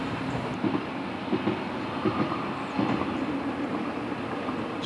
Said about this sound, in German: Wir hören jetzt einen Zug auf der Lahntalbahn.